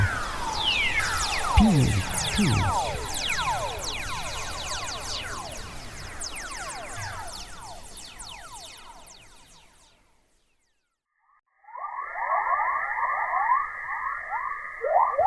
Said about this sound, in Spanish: ondas de plasma en modo silbido. Parece como la guerra de las galaxias.